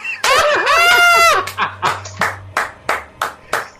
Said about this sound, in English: I scared my cat when I clapped. She ran away from me.